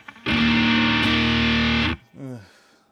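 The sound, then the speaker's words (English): A loud, heavily overdriven electric guitar chord, played through a Sound of Justice FX overdrive distortion pedal, rings out thick and buzzy, gets struck again midway, then cuts off abruptly, followed by a brief voice. “it's so dumb how good these fucking Sound of Justice FX pedals are.”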